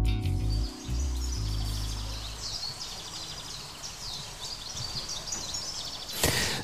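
Birds chirp and twitter steadily outdoors, a mix of short, bright calls. A low rumble sits underneath at the start, and a brief noisy burst comes at the end.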